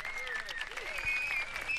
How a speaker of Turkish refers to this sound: Yani alkışlarınızı duyamıyorum ama o yüzden kendi alkışlarımı buradan yayınlıyorum.